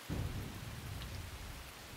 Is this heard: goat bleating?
no